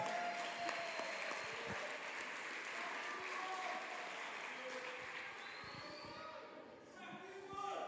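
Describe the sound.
An audience applauds in a steady, dense wash of clapping that lasts the whole stretch, with faint voices mixed in, briefly dipping near the end before swelling again.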